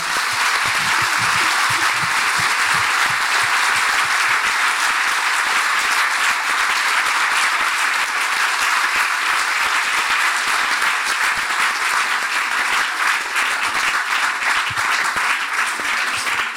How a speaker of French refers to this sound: Avant d'avoir un lauréat et d'applaudir celui-ci, je pense qu'on peut encore applaudir les cinq.